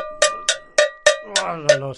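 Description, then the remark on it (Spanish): A cowbell is struck seven times in a steady, quick rhythm, each hit a bright metallic clank with a ringing tone. Partway through, a wavering voice sounds underneath the strikes, testing how voice and bell sound together for singing. “Voy a probar a ver si la voz y la campana, ¿cómo suena?”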